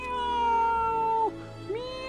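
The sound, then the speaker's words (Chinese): A long, loud, drawn-out meow holds a steady pitch, then dips sharply and swoops back up near the end, with no talking over it. “几百只猫，几千只猫，几百万只猫，几千万只猫，几亿万只猫一起叫：“喵，”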